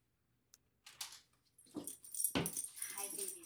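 A dog whimpers and wheezes in short, breathy bursts as it is let inside, with faint shuffling movement around it and some brief human vocal sounds mixed in.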